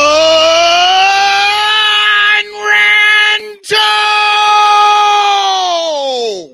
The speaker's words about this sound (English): Well, I, you know, I, you sounded so thankful in that scream. I, I could tell you were thankful to be alive.